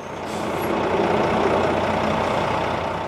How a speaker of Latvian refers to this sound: Ir darbdienas pēcpusdiena Krievijas salā. Tā ir Rīgas brīvos teritorija Daugos kreisajā krastā. Satiksme kūsā. Smagās automašīnas viena pēc otras piestāja pie iebraukšanas muitas teritorijā. Veidojas pat nelielas rindas.